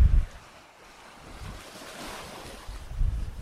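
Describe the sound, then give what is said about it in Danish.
Wind gusts across an open coastline at Dyngby on the Kattegat coast of Denmark on a windy day, with heavy low-frequency buffeting bursts at the start and end and a steady rush of surf in the background. No one speaks. “Ja, nu går vi her en blæsende dag og kigger over, og vi kan se et Tunø derude, og vi kan se Samsø i det fjerne.”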